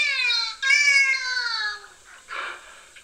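A dolphin mimics a human word through its blowhole: a reedy, harmonic whine in two parts that slowly slides down in pitch, followed by a few softer, breathy puffs of air.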